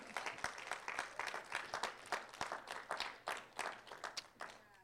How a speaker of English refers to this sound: And God granted him his request. Somebody clap because God is good.